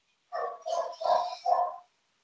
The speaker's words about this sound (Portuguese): Teu, teu cachorro aí tá virado na porra, velho. Manda ele aquela a boca. Pior que não é nem o meu, não. É na, na rua esse aí. Ah, cachorro.